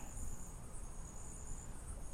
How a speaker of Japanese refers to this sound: えー、今夜中なんですけども僕は家の前の森に来ております皆さん聞こえますかこの虫たちの鳴き声がわかりますか